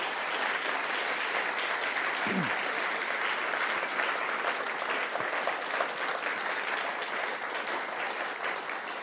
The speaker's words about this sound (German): Leute, gebt ihnen mal einen fetten Applaus.